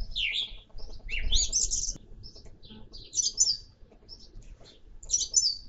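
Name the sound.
birds singing and chirping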